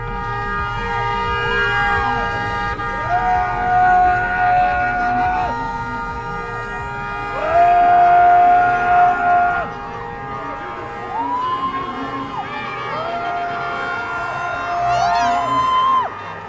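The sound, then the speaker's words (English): The Q shaman lets out repeated long, loud warrior roars at a rally, each held for a couple of seconds, rising over the constant noise and cheering of a large outdoor crowd. “So that voice you can hear is the Q shaman just screaming his yeah, powerful right. warrior roar.”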